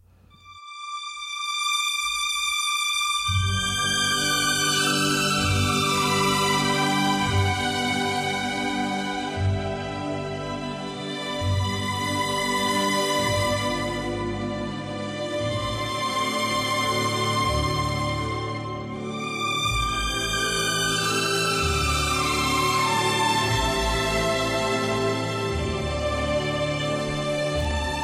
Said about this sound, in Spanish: El efecto se logra en una orquesta utilizando múltiples secciones de cuerdas que tocan partes ligeramente diferentes entre sí, en un efecto en cascada, creando así la ilusión de reverberación del sonido original y que suena así.